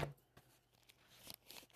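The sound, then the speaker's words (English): Soft, papery rustles and swishes of thin Bible pages being flipped to find Revelation 6, verse 12, a few quick turns with a quiet, crisp brushing sound and no voices. “And I have not put markers in all of my, so it will be a lot of page turning here.”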